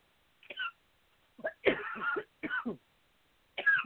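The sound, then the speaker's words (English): A fit of harsh coughing from a woman comes in several bursts, one short hack, then a longer strained cough, another burst and a final one, as something went down the wrong pipe. “Sounds like the wrong pipe.”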